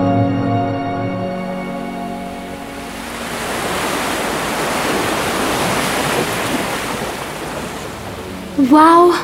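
A steady, echoing wash of water inside a cave grotto with calm blue water and natural stone columns, soft and continuous like gentle surf, as a musical tone fades out at the start and a voice briefly begins at the end.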